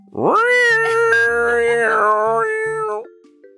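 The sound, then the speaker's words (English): A person imitates a kitten with one long, drawn-out meow that rises sharply, holds a wavering nasal tone for nearly three seconds, then trails off; loud, with no other talk. “I love that impression.”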